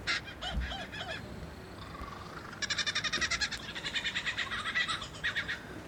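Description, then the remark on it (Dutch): A single male bird runs through a varied string of loud calls, mimicking other species (it can imitate at least 20): a few harsh honking notes, then long bursts of rapid, rhythmic repeated chattering, with no talking. “He can imitate the calls of at least 20 different species.”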